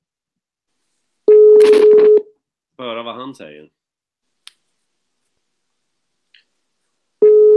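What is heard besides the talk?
telephone number being dialed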